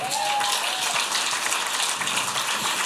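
Steady audience applause fills the space, a dense wash of many hands clapping at once, loud and continuous with no voices, plus a brief faint whistle-like tone near the start.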